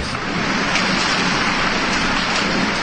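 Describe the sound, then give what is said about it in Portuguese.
Heavy rain pours down steadily, a dense, continuous hiss spread across all frequencies with no pauses, loud throughout. “A chuva começou a cair forte os colonos que já estavam na lida correram e se refugiaram no engenho.”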